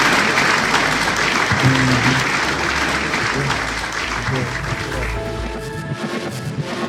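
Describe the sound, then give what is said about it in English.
A crowd applauds loudly and steadily for about seven seconds, dense clapping with faint voices and a few cheers mixed in before it slowly tapers. “Let's give a round of applause for our rock stars.”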